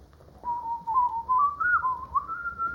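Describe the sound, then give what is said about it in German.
A grandfather, a gifted imitator of bird voices, whistles a continuous, wavering tune imitating birdsong, the pitch sliding and warbling up and down for a few seconds, clear with no talking. “Da mein Großvater ein begabter Vogelstimmenimitator war, brauchte ich nur auf einen der Vögel zu zeigen, um ihn zu einem anhaltenden Gezwitscher anzuregen.”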